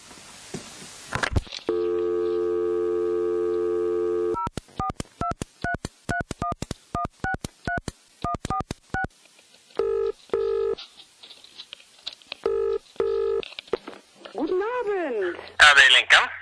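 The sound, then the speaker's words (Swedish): A steady dial tone gives way to a quick run of about a dozen keypad beeps, followed by repeated ringback tones. Everything is close and clear, ending with a brief burst of warbling noise. “Det är Bandet på följande podcast som ringer grabbar!”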